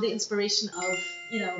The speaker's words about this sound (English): sorry, that was my phone.